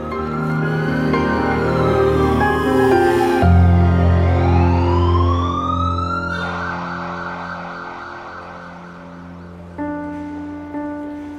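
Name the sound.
ambulance siren approaching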